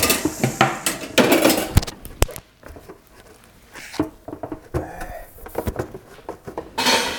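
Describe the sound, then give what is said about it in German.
A microphone that got caught on its cable is pulled and falls, giving loud rustling and scraping, two sharp knocks, then a quieter stretch of small bumps and a final burst of handling noise. “Ich bin mit dem Kabel hängen geblieben.”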